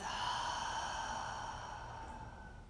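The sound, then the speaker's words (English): A long, steady exhale through the mouth during a breathing exercise, a soft breathy rush lasting a few seconds and slowly fading, with no talking. “A kind inhale through the nose and a compassionate exhale through the mouth.”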